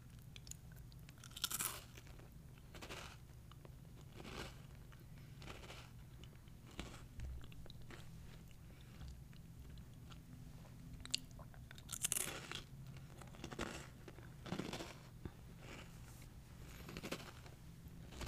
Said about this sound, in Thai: อันนี้มีความแข็งมากกว่านะอ่ะเดี๋ยวลองบีดู เนี่ย เป็นความแข็งความกรอบที่เรารู้สึกว่ามีมากกว่ายี่ห้อนั้นที่เป็นแครกเกอร์กลมๆ